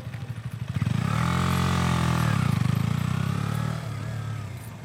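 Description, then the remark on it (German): A motorcycle rumbles, its engine swelling as it rolls up, then easing off and dropping back to a lower, pulsing idle as it comes to a stop. “Na, du hast das Problem gehabt, du hast beim Ranfahren den Lenker nach rechts gezogen und wolltest aber den linken Fuß absetzen.”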